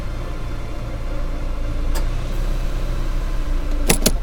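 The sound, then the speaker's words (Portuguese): A steady low engine rumble, like riding inside a moving car, with a couple of brief sharp clicks near the end. No one speaks. “Vocês pegam um carro, um Uber, um carro próprio, não importa. Vocês se deslocam”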